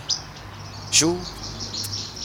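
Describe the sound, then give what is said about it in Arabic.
Small birds chirp outdoors in short, high tweets, heard from a balcony, over a steady low hum, with a brief spoken word in the middle. “سامع العصافير شو عم يحكوا نعم يا فتاح يا رزاق يا كريم يا مو العصافير ما بيحكوا بيزقزقوا”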